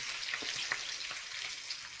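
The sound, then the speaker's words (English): Bacon sizzles and crackles in a pan, a steady hiss of high frying noise dotted with sharp little pops, with no voices. “How, how done do you want this bacon? Well, that's looking good to me.”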